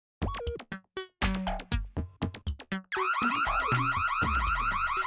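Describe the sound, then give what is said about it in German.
A loud electronic alarm siren blares, cycling through choppy whoops and beeps before settling into a continuous, rapidly warbling high-pitched tone, until it is silenced by a punch on a red button. No one speaks. “Mika schlug mit der Faust auf einen roten Knopf und die Sirene verstummte.”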